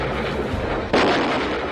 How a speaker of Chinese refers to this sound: 在日本舰队不断的炮击下，超勇逐渐倾斜，孤立无援的超勇在日舰的炮火集中攻击下， 于下午两点二十三分最终沉没。